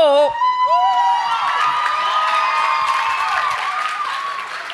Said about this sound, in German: Bitte auch für Sie einen herzlichen Applaus.